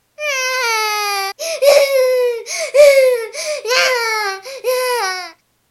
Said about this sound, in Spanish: El niño desconsolado muy fuerte se puso a chillar